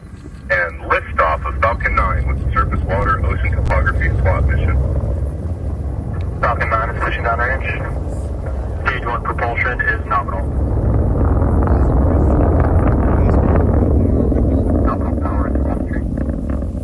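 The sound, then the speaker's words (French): A deep, continuous roar of a rocket launching a satellite in the United States on a cold night in mid-December 2022 rumbles loudly for the whole stretch, swelling toward the end, while voices are heard over it in the first half. “La fusée vient de partir dans un halo de lumière comme une boule de feu dans le ciel.”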